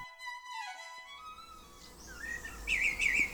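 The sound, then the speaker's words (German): Birds sing and chirp outdoors in a meadow early in the morning, their bright warbling phrases growing clearer and louder toward the end over a soft background hum, with a sustained tone fading out at the start. “Ich stehe auf einer Wiese und höre den Vögeln zu, wie sie munter singen und zwitschern.”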